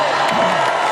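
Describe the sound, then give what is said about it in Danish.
A large crowd at a rally in Iowa cheers loudly and continuously after a Republican contest victory, with scattered whoops and shouts rising out of the dense roar; no single voice stands out. “What a turnout, what a crowd.”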